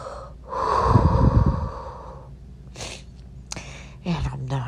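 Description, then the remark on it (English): A long, heavy, noisy breath, followed by several sharp shaky inhales and a short sob-like catch in the voice as someone cries. No words are spoken. “I'm just breathing through it, allowing it to flow through.”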